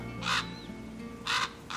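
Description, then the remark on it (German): Harsh, hoarse croaking calls from a common raven (Corvus corax), three rough bursts spaced apart, moderately loud against a quiet outdoor background. “Uh, das könnte ein Rabe sein. Ein Kolkrabe, ein Corvus corax. Die machen so krack, krack, krack oder krack Geräusche.”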